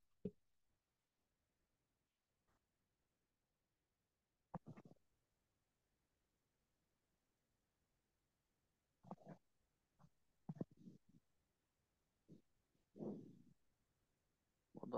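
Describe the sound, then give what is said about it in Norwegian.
A phone line cutting out: long stretches of near silence broken by short, choppy bursts of garbled noise, faint overall, with no clear speech coming through. “Ja, jeg datt ut litt vekk en telefon her.”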